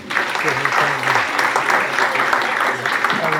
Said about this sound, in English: Everybody's give a round of applause